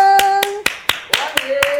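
Seven sharp, evenly spaced hand claps at a brisk steady rhythm, each crisp and loud, ringing out over a sustained, steady tone in the background, as a warm welcome for a guest, a child's father.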